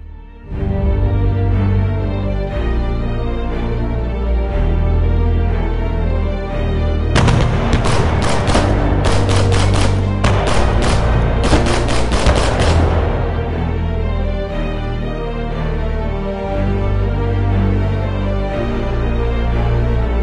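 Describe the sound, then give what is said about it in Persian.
The cannon bombardment of the parliament (Majlis) in the capital, Tehran: a heavy, continuous low rumble of bombardment, broken midway by several seconds of loud, rapid gunshots in dense volleys, before the deep booming rumble carries on alone. “صدای شلیکی و بعد آتش و دود و خون جنگ شروع شد”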